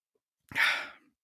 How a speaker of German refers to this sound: Äh, ich muss niesen. Äh, Gesundheit.